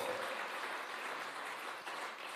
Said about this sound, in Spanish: ¿Le puedes dar esa ovación al Rey de Reyes?